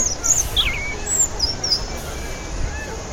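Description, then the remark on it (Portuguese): A sabiá thrush sings a few short, bright whistled phrases in scattered bursts, fairly faint, high up in the sky, nearly buried under a constant wash of low city traffic noise in a busy, noisy neighborhood. “O sabiá”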